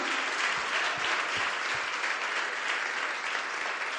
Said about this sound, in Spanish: Si es para Cristo, dale fuerte este aplauso. Aleluya.